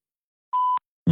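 A single steady electronic beep, clear and fairly loud, lasting about a quarter second after silence, like a voicemail prompt tone, followed by the start of a voice.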